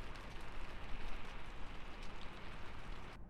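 Heavy rain pours down steadily in a dense, continuous hiss of countless drops drumming on a surface, fairly loud, with no voices.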